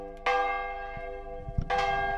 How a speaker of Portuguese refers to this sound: apesar da primavera, é o inverno que ainda toca no sino da freguesia.